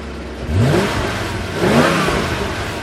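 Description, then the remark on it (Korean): A car engine idles with a steady low rumble, then revs up twice, the pitch sweeping upward each time before settling back. Fairly loud, with no voices. “자동차 공회전 소리가 오늘 보물 소리예요.”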